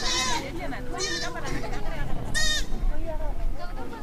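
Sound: goats bleating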